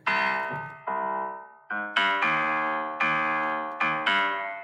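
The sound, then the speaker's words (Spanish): A short melody played on a phone piano app: about eight bright, struck notes with quick attacks and fading tails, played at a steady, unhurried pace, clear with no talking. “para la gente que nos está escuchando, es una aplicación celular que es un... Sí, es, un piano, es un, piano, normal, un pianito ahí normal”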